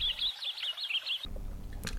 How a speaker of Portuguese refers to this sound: Ah, yeah, pois é, mano, agora passou aí um passarinho que eu ouvi.